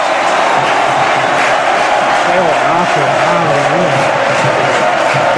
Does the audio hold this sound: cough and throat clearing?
no